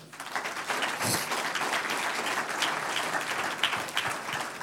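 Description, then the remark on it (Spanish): A church audience applauds the Lord together, a steady, dense wash of many hands clapping that holds at an even loudness for several seconds, with no one speaking over it. “Un aplauso al Señor.”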